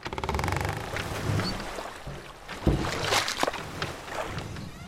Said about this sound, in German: Sonnenstrahlen brechen sich an kleinen Wellen, die an ein Ruderboot schlagen. Die Paddel wühlen durchs Wasser.